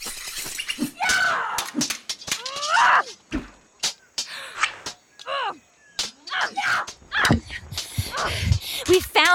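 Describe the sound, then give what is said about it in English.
A banshee scream: shrill, wavering shrieks rise and fall repeatedly, loud, tangled with sharp cracks, smacks and crashing impacts throughout. “found Morgan Le Fay, the banshee. She's appeared right in front of us and screamed.”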